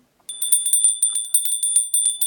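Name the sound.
small hand bell ringing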